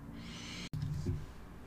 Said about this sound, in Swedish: På så sätt så har du med denna lilla extra bonuslek, detta lilla puffande, Hjälp dina läppar att vila mer avspänt